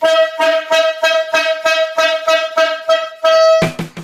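A loud, rhythmic horn blares in repeated short blasts, about a dozen honks in quick succession on a steady pitch, ending with a few harsher, lower toots, played as a sting introducing a segment.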